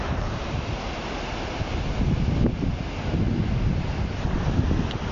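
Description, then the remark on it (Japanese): Steady wind buffeting the microphone over a continuous wash of surf at Kugenuma Beach, a broad, rumbling roar that swells slightly midway and holds loud throughout, with no voices. “おはようございます今日は鵠沼海岸に来ております”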